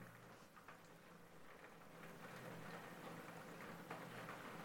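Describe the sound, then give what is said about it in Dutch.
Steady rain patters against a Velux skylight roof window overhead, a continuous soft hiss with scattered sharper droplet taps, moderately quiet and unbroken throughout, with no voices. “Hey, dat is de, de, de, regen die, die, die eh, Hiro eh, echt tegen het eh, raam aanslaat. Een prachtig Velux dakraam.”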